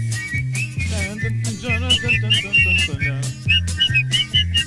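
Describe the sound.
A man whistles a lively, wavering tune, the melody rising and falling in short phrases over a steady, bouncing bass accompaniment.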